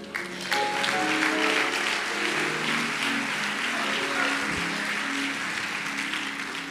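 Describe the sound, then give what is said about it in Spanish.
A crowd breaks into steady applause for Jesus that starts abruptly and holds at a strong, even level, a dense wash of many hands clapping, with faint tonal sounds and murmurs mixed underneath. “My God un aplauso a Jesús.”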